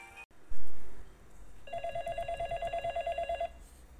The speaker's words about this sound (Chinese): 这时候，寂静的大厅里突然响起了一阵电话声，啪嚓啪嚓啪嚓啪嚓啪嚓，砰砰砰砰砰砰砰砰，啪嚓啪嚓啪嚓啪嚓。